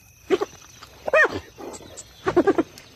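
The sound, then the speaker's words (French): Spotted hyenas cackle at night in short bursts of high, giggling yelps, arriving in three or four quick clusters against a quiet background. “On les entend ricaner Ricaner Mais c'est un peu effrayant tout ça, non Pas du tout Les hyènes sont des animaux hyper marrants Pas si effrayants en fait”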